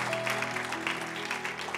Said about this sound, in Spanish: ¿Cuántos dicen amén? Dale ese aplauso fuerte a Cristo.